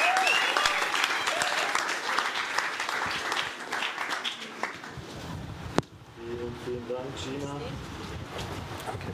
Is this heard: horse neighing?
no